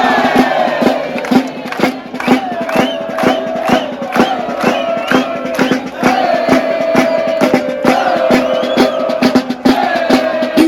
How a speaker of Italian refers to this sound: eppure Sassari in questo tardo pomeriggio del 14 agosto non sembra badarci. Sono tutti per strada e tu con loro. È una folla in festa che riempie il centro storico, da Piazza Castello in giù